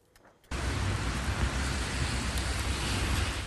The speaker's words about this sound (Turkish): Sağanak yağmur, fırtına gündüzden geceye etkisini bir an olsun kaybetmedi.